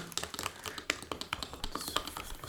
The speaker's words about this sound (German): Ja, ich rühre das mit dem Löffel um. Ich werde das jetzt gleich mit dem Löffel umrühren. Also kalt, kaltes, klares Wasser. Genau, das kaltes, klares Wasser.